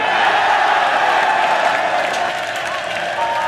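In NASA's Houston control room, a crowd breaks into cheering and applause as radio contact with the Apollo astronauts returns after six minutes of silence, a dense, steady roar of clapping and excited voices with a few whoops rising above it, sustained loudly throughout.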